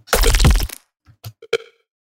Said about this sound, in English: Um, yeah, these wood croaks here. Um, you thought it was a snare, but it's really just this little like creaky noise